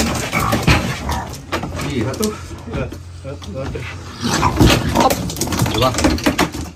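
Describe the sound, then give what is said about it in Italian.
A raccoon's frantic squeals and whimpering yips come in bursts throughout, loud, as it clings with all its strength to a post of the enclosure it was kept in while being pulled off, mixed with indistinct human voices and scuffling noise in the background. “il procione con tutte le sue forze prova a resistere attaccandosi a un palo del recinto in cui veniva tenuto”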